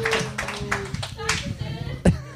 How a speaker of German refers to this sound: zumindest einmal einen Applaus für Sie, dass Sie äh, zumindest ein bisschen daran.